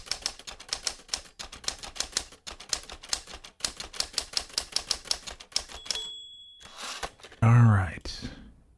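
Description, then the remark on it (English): Rapid, forceful typewriter keystrokes clatter in a dense rhythm for about six seconds, followed by a carriage-return bell ding, then a short breathy vocal sound near the end. “Let's go ahead and put away the uh, aggressive typewriter.”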